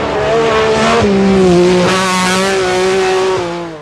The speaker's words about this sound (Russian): Метро 6R4 лишь раз доехал до подиума WRC, но запомнился чертовски злобным видом и убийственной громкостью. Послушайте. Послушайте.